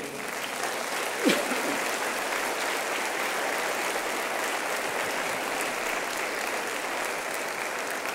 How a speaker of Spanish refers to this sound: Y quedó restablecido el servicio de la casa de Jehová. Denle un aplauso al Señor.